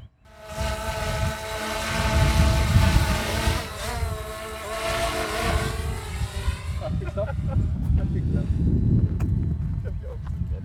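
A quadcopter drone in 4K 30 fps mode hovers with a steady, high-pitched propeller buzz during an obstacle-avoidance test, stopping just short of a person in its path; the pitch dips and wavers midway, then fades after several seconds as gusty wind rumble takes over.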